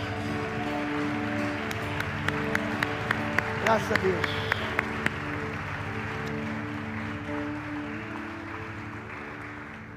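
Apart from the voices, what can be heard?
audience applause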